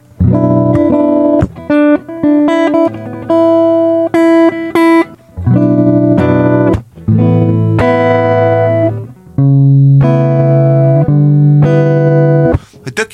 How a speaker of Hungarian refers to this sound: hogy hogyha meghallgatod, hogy gitáron elkezd üresen hagyni húrokat, akkor nagy valószínűségű az, hogy ez gitáron íródhatott, és aztán lett átrakva zongorára.